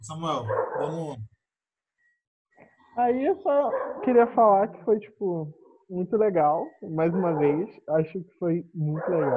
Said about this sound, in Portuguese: Desculpa pelos cachorros de novo.